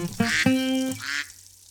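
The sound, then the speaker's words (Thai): A duck sound effect: a duck quacks several times in quick succession, loud, with nasal harmonic-rich calls and no talking. “เปลี่ยนเป็ดให้เป็นเปิด”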